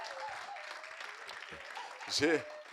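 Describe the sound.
A crowd claps steadily, a dense crackling applause that holds throughout, while a voice rises in a loud, pitched shout or cheer near the end.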